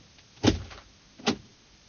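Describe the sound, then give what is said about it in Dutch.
The door of an X-ray department is opened: a solid clunk of the latch, then a second, slightly softer knock a moment later, with no voices. “Ik deed de deur open.”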